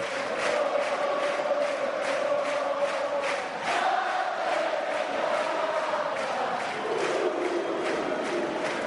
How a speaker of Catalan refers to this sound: Aquest crit de guerra final, aquest 1 dels castellers de Vilafranca,